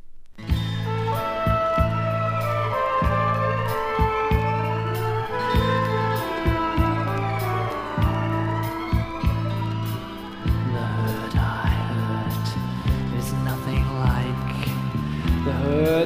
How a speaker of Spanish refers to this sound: cuya cara B es esta versión maravillosa